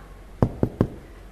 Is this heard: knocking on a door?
yes